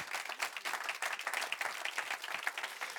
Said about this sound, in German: Der Applaus war nochmal schwächer, aber ich vergebe euch zum zweiten Mal. Ja, dann mal gescheit applaudieren, weil das ist die Wahrheit.